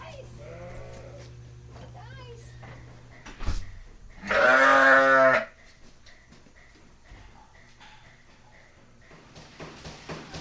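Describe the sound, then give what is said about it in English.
A sheep lets out one loud bleat lasting about a second, rising above the steady low hum and rhythmic beat of the milk pump and compressor and scattered clanks in an indoor milking parlor where ten sheep are lined up being milked. “Ten sheep are lined up in the parlor being milked, and the compressor makes this rhythmic beat in the background.”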